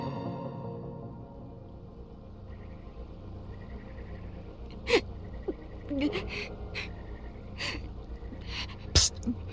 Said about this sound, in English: …'s like been crying the whole time … and the twins been in there talking